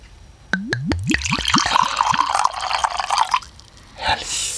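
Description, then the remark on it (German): Liquid glugs out of a bottle into a glass in a quick series of rising gurgles that settle into a steady splashing pour, ending with a brief clink; a vanilla and cherry flavoured Dewdrop drink is being poured. “So, dann schildere uns doch mal deine Eindrücke, während ich mir eingieße.”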